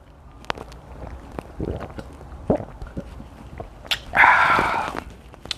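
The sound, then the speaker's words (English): Wet gulps and small mouth clicks as someone drinks iced tea in several swallows, ending with a loud, breathy sigh of relief. “That was me just gulping down some nice iced tea.”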